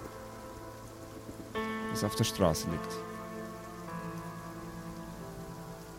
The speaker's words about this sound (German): Der Regen, der vom Himmel fällt, verwäscht das Blut,